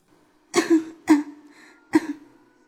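coughing twice

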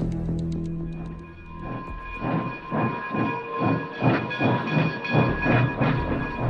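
train running

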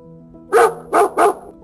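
dog barking

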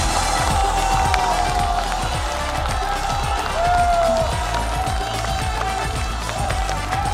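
audience applause

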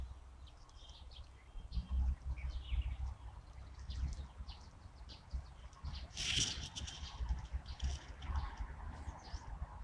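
yellow-browed warbler singing

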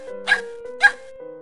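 small dog barking

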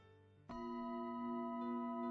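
meditation bell ringing

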